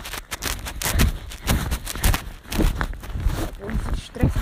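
Steady walking footsteps outdoors on a walk past fields, about two per second, each step a crisp crunching scuff with a soft low thud, fairly loud and regular over a constant background rustle.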